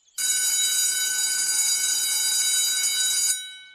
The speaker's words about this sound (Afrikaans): Wanneer hulle by die skoolhek aankom, lui die klok.